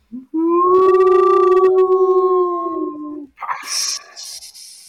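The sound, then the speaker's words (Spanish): A voice imitates an alarm siren as an improvised spoiler-alert sound effect, with one long, loud, steady wailing tone lasting about three seconds, wavering slightly in pitch before trailing off into a breathy, hissing finish. “una alarma, alerta spoiler.”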